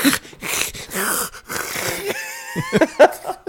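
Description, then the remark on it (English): A person imitates the calls of a hydralisk creature with raspy, wheezing hisses and strained gurgles, a few short bursts ending in a higher-pitched squeal, loud. “It makes these not, like wonderful noises, like.”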